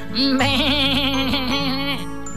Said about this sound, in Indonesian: Apa itu? Iya, ada juga seekor kambing.